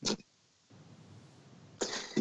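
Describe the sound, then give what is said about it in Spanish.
A few sharp coughs from a person with a sore throat, brought on by laughing: one harsh burst, a pause filled with low background hiss, then two more coughs in quick succession near the end, with no talking. “En fin, no me puedo reír porque si no me entra la tos.”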